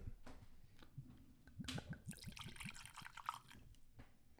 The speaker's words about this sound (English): There you go. Ooh, thank you. It's a nice pour. Ooh, that's a very um, a good one. Yeah, Didn't overdo it. that's a small pour.